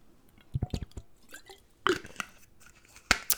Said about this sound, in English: Let me just have a uh, drink of water. Just getting a bit dehydrated here. It's probably from the coffee.